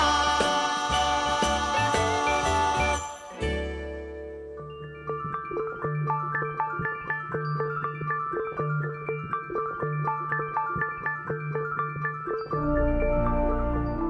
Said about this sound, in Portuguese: That's the jingle bell